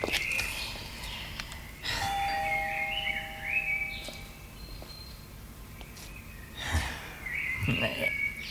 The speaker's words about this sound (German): Klingel nochmal.